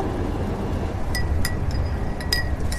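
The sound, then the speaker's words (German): Breakfast being served on a night train in southern Germany near Freiburg: several bright clinks of dishes and glass, scattered and ringing briefly, over a steady low rumbling hum. Nobody speaks. “Hier wird gerade das Frühstück serviert.”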